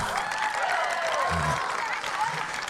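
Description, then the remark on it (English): A group of children claps steadily for a few seconds, a dense, even patter of many small hands, with some high voices calling out underneath. “Will you sit down with your new friends and everyone will give you a nice clap.”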